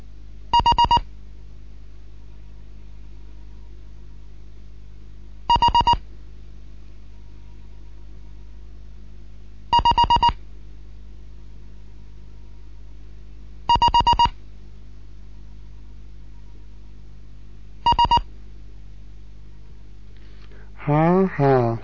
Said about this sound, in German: Hier ist T-Gott 1, Kilo November mit einem Morseunterricht, vierte Lektion. Weitere Gruppen.